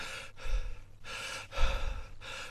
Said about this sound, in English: there's a very loud high note and then silence, and you hear him breathing in and out